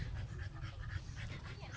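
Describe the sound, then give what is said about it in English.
A struggling dog pants heavily and rapidly, a continuous strained breathing with faint whimpering threaded through it, steady for the full couple of seconds. “that dog is struggling.”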